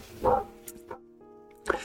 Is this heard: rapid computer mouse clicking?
no